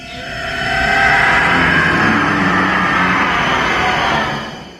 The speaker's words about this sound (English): Whittington's neck is slashed open, and we hear the first official reuse of the Howie scream.